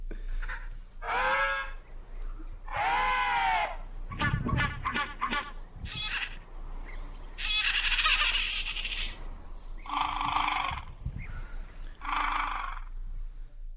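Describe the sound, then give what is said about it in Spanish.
A person imitates a penguin call with a string of loud, brassy, braying honks and squawks in uneven bursts, some drawn out and wavering, others short and clipped, with no speech. “Sí, o sea, quiero oír a tu parte pingüina.”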